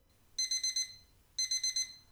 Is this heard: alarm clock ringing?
yes